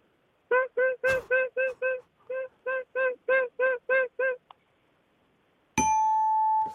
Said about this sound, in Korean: 그러면 창문 닦는 소리 한번 들어보겠습니다. 지금 시작할게요. 예, 어떤 창문인가 좀 설명될까요? 어떤 창문인가? 이제 밖에 이제 베란다 창문을 어, 닦는 소리인데